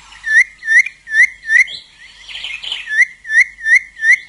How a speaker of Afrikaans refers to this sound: En toe ek die punt 13 vinnige kort note lees, toe weet ek presies wie dit is. Dit is die Kaapse bos bontrokkie. Dis 'n ou klein voeltjie. Dit is hoe hulle gewoonlik klink.